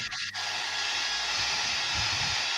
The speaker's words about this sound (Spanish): Te prendo el sonido. Creo que es una sierra eléctrica.